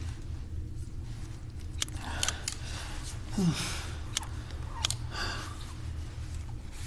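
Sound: scissors snipping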